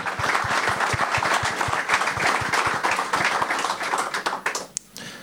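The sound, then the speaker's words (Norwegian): Steady audience applause for a footballer after a fantastic season in the fourth division, a dense crackle of many hands clapping with a few sharper individual claps, holding loud for about four seconds before thinning out and fading near the end. “Jeg gleder meg til å se deg i tredjedivisjon, så applaus til han.”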